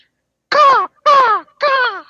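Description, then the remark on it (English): Three loud, harsh crow caws in a steady rhythm, each a short raspy call that slides downward, separated by brief pauses, with no other sounds around them. “No, I want to enter via crow.”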